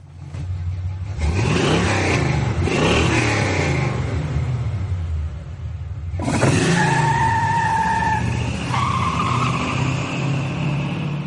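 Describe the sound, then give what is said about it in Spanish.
Two vehicles, one of them a golf cart, race, each given the same amount of fuel, their engines droning and revving steadily, with bursts of tyre skidding and a sudden loud surge midway, followed by high whining motor tones. No one speaks. “Vamos a hacer una carrera entre estos dos vehículos.”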